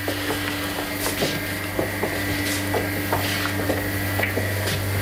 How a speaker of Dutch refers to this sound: Gaat nu een uh, grote, dikke deur, gele deur open.